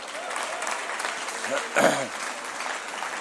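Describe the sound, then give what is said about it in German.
A church audience claps steadily in a dense, continuous patter of applause, with a brief voiced shout or cheer rising over it near the middle. “Gebt ihm mal einen Applaus, ja.”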